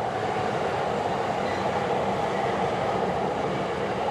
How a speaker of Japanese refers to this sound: 今山手線が通るのを踏切で待ってます